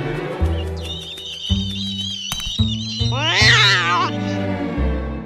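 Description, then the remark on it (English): A frightened cat named Tiger meows repeatedly in high, wavering cries over a steady backdrop of low, pulsing musical tones, with one longer, strained yowl rising louder near the end. “What a scaredy cat!”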